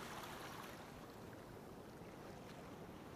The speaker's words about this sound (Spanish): Tu cerebro ya encontró una respuesta a estos estímulos, ya que existe un área asociada con la emoción. Y esta se activa automáticamente cuando escuchamos el sonido de las olas.